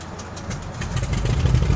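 An aircraft piston engine is started by turning the ignition key: it cranks with quick rhythmic pulses, then catches and settles into a deep, steady idling rumble that grows louder, a normal start with oil pressure rising. No one is talking.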